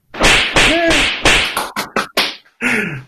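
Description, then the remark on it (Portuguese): A series of sharp, loud whip cracks played from a soundboard in quick succession, some with brief whooshing tails, punchy with short gaps between them and no talking. “Nossa, Nossa senhora, mas isso, não, é, isso é um chicote.”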